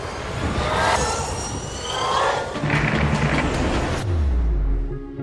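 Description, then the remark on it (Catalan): An electric motorcycle runs, a loud steady whirring hum with a high whine on top. Near the end the sound shifts to a deeper, lower rumble. No one speaks. “Tot plegat per popularitzar unes motos que tindran evidents avantatges per al medi ambient, sense emissions contaminants, i així poder passar d'aquest so a aquest altre.”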